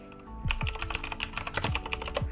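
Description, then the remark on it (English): Rapid, clattery typing on a computer keyboard, a dense run of crisp keystrokes with a few heavier thocks, fairly loud, with no voices. “you know, just enjoy some of this keyboard ASMR for one second.”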